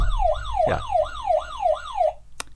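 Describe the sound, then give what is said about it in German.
A wailing alarm siren sweeps up and down in quick repeating cycles, loud and steady with harmonic overtones, then cuts off abruptly, followed by a brief click. “Ja, Alarm. Alarm herrscht hier heute.”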